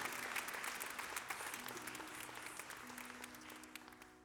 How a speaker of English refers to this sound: Everyone together, let's clap our hands and give honor and worship to Jesus. Hallelujah.